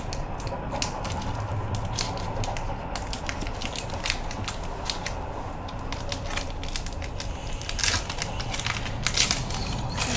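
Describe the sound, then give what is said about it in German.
A Pokémon trading card booster pack (Miraidon) is torn open, with a dense run of crinkly foil crackles and sharp snaps lasting several seconds over a steady low rumble while a train passes by. “Den mache ich wieder auf.”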